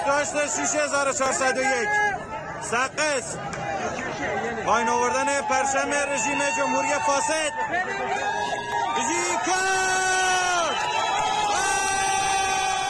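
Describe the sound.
A crowd of protesters in the Kurdish province of Iran shouting and chanting together in loud, continuous overlapping voices, with rising yells and whoops, while pulling down a pole that held the Iranian flag in the evening, trampling and burning the flag and shouting to burn the flag of the corrupt regime.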